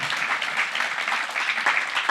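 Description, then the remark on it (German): Steady audience applause for Croatia, a dense crackle of many hands clapping at an even level throughout, with no voices standing out. “Applaus für Kroatien.”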